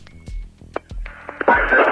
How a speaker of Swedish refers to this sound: vill försäkra sig om ryktet och ringer klockan 23.41 upp akutmottagningen på Sabbatsberg.